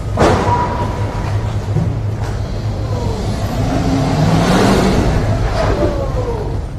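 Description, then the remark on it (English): A car crashes into Joe Biden's parked motorcade: a sharp, heavy impact right at the start, followed by a loud continuous engine roar and rumbling noise, with another fainter bang later on. No one speaks. “It's the car crash that hit the motorcade for Biden.”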